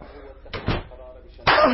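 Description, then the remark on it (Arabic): A door swings shut with a solid thud, followed moments later by another sharp knock, while voices talk around it; a soldier shutting the door behind him. “سكر الباب وراك يا عسكري”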